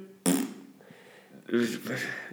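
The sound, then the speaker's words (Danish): A person blows a loud, buzzing raspberry that imitates a fart: a sharp burst at the start, then a second longer, rougher sputter near the end. “Altså specielt, specielt fordi det er sådan en rigtig rungende pruttelyd, du har lavet.”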